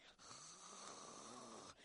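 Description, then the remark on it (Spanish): A person imitates a snore with one long, raspy, rattling breath held for over a second, loud, with no other sounds around it. “Y es un ronquido bonito, ¿eh?”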